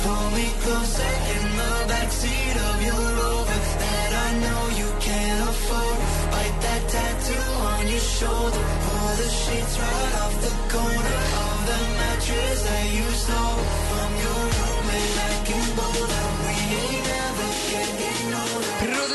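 A pop song plays at full, steady volume for about twenty seconds, with a dense electronic arrangement and a bass pulse repeating in a regular rhythm, and no talking over it.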